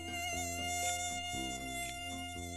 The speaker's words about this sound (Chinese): 但是草原上有很多蚊子，吵得怎么都睡不着了